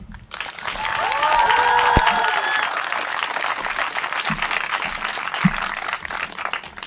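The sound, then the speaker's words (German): An audience bursts into sustained applause for a performer after a text reading, dense overlapping clapping that holds steady for several seconds, with a few brief whistles and cheers rising above it early on. “Applaus”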